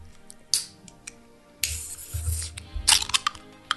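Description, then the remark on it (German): A bottle of prosecco is opened with a sharp pop, then a loud, steady fizzing hiss as it's poured, ending in a few clinking, splashy bursts, with no talking. “Also der Sound klingt jetzt über die Kopfhörer schon sehr, sehr geil.”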